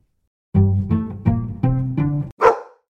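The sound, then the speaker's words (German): A German Shepherd dog barks five times in quick succession, each bark deep and drawn-out, followed by one sharper, higher bark. The barking is loud, with no one talking. “Na gut, der deutsche Schäferhund.”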